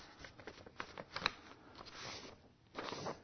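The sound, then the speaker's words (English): Paper crinkles and rustles as a sheet of paper is handled and a corner is folded down to the edge, with a series of soft crisp crackles and a brief smoother swish near the end. “And what you do is you take this corner and you fold it down to the edge like this.”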